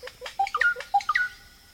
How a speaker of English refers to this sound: Oropendolas sing a startling refrain. These birds are part of the richest array of life on Earth, an extraordinary mosaic of habitats, all intricately linked and all dependent on the river system that holds one fifth of all the world's fresh water.